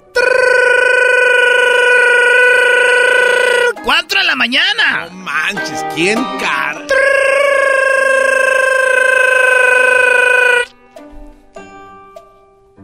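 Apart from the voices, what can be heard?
telephone ringing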